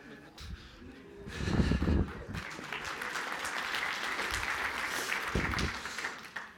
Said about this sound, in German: Odi, falls, äh, falls du auch schaust, das wäre die Applaus gewesen.